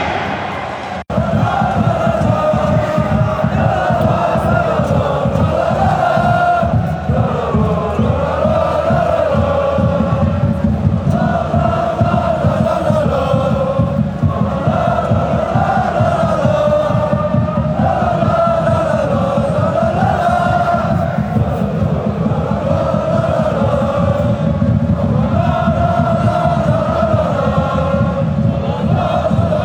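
A football stadium crowd at Luneng Stadium during a live Chinese Super League match, after a Shandong Taishan goal for 2-0, roars and chants in unison for the whole stretch, voices rising and falling in sung waves over a steady, rhythmic pounding of drums or clapping, loud throughout.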